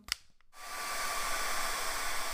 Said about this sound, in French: Attendez, je branche le sèche-cheveux, ça la détend.